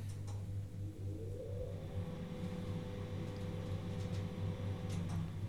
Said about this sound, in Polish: Teraz ustawię się w stronę przycisków, włączę wentylator.